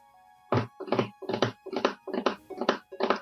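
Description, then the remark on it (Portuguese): A galloping horse sound effect: seven hollow, thudding hoofbeats in a steady, even rhythm, fairly loud, over a faint constant tonal hum, with no voices. “Escutam o, galope? É, escuta. aí, tá, o galope.”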